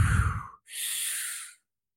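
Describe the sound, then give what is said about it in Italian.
A deep, forceful breath: a heavy exhale followed after a brief pause by a long, airy inhale, with no talking around it; one of 20 fast breaths taken through the mouth in a breathing exercise. “Quindi faccio 20 respiri. Adesso ve li accento per farveli sentire.”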